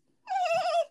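A dog named Kona lets out a single high-pitched squeaky whine, like a dolphin, sustained and tonal for about half a second, fairly clear with no talking over it.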